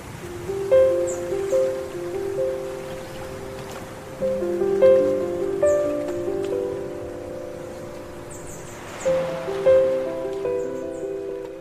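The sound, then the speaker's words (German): Gentle sea surf washes steadily in the background while small birds chirp faintly overhead, beneath a soft, slow melodic instrument playing repeated phrases in the foreground, at a concert on a beach in Thailand. “also man hört ja die, die Vögel im Hintergrund, das Meer, dann auch noch diese wunderschönen Klänge”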